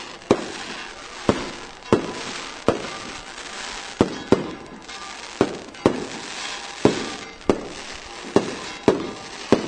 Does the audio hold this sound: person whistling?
no